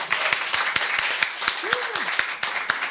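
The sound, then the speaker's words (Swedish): An audience applauds steadily, with many overlapping claps forming a dense, crackling wash punctuated by sharper individual hand claps, while a brief voiced sound rises and falls partway through. “en stor applåd!”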